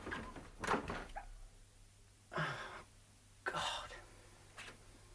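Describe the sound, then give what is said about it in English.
A door opens with a few rough, breathy swishes and scrapes spread over several seconds, set against a low steady hum. “I'm going to open this door.”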